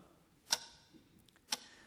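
A clock ticks quietly and steadily, two crisp, sharp clicks spaced about a second apart, with fainter softer ticks in between against a hushed stillness.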